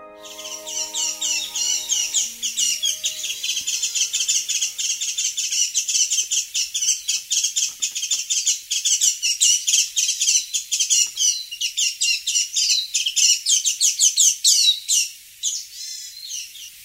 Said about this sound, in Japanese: この声は椿の花の蜜を吸いに来た伊豆大島のメジロです